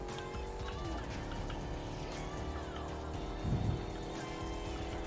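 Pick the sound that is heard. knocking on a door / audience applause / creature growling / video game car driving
video game car driving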